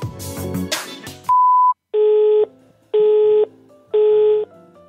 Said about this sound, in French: La personne que vous essayez de joindre n'est pas disponible. Vous pourrez envoyer un message après le bip sonore.